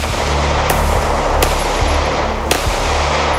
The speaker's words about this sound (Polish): Szybko okazuje się, że to nie jest zwykły policjant. Mężczyzna otwiera ogień.